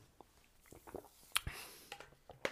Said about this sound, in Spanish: Dame déjame tomar un poco de agua que tengo sed.